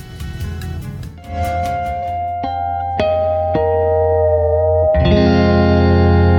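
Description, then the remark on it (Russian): Loud rock music from a rock band's album, with heavily distorted, effects-laden electric guitar, sustained chords ringing out with sharp strikes, building to a fuller, brighter band sound near the end. “Песни, э, две песни будем сегодня слушать э, с этого альбома, э, который так и называется ….”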